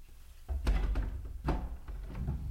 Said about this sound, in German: Tür, geht zu. Jetzt wird abgeschlossen. Zweimal.